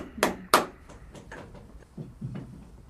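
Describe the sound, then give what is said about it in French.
Two sharp, ringing hammer blows land close together near the start as a farrier drives nails into a horseshoe, the nails set into the horn of the horse's hoof. Softer scattered taps and low knocks follow. “Alors, vous voyez, on entend les douches, on entend le maréchal, et vous voyez que grâce à notre surface, on limite le bruit des fers hein, sur une surface solide.”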